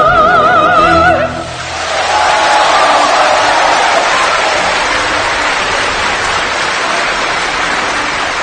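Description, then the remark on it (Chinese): An 80-year-old singer's sung note with vibrato ends after a second, then the live concert audience breaks into loud, steady cheering and applause in admiration of the performance, a dense roar of clapping and voices that holds at full strength to the end. “八十岁高龄，如此精彩的演绎，得到了现场观众的由衷的赞叹。”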